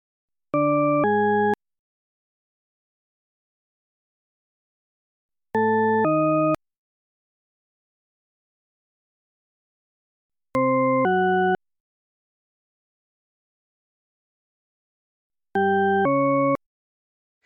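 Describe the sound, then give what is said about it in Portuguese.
Four pairs of rich, buzzy tones, each pair a quick two-note step whose direction, up or down, is hard to tell, repeating about every five seconds with silence between; played as a listening test in which listeners judge whether each pair goes from high to low or low to high. “Vou botar para você ouvir agora, depois anota aí o que, que você acha né, na sequência, se é do agudo para o grave, do grave para o agudo, e depois dá para outra pessoa ouvir.”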